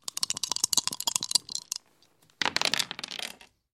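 Dice clatter and rattle in a rapid burst of hard clicks, pause briefly, then tumble again in a second dense flurry, fairly loud with no talking.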